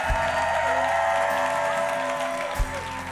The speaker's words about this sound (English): If you believe it, give God a hand clap of praise tonight.